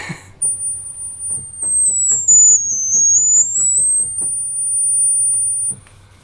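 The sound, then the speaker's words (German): The organ's highest pipe tone, very shrill and piercing, holds steadily for about five seconds, dipping slightly in pitch midway, with faint soft clicking and low rumble beneath it. “Dann umgekehrt höchste Ton, das ist so die Hundepfeife.”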